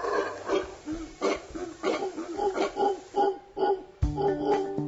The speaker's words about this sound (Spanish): Se trata de los zaraguatos, también conocidos como monos aulladores, debido a su potente llamado que puede ser escuchado a varios kilómetros de distancia.